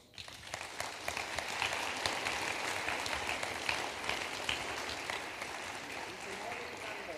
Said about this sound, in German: Deshalb freut es mich riesig, dass du hier unter uns bist und ich lade dich ein, zu uns nach vorne zu kommen. Wir heißen dich willkommen mit einem Applaus.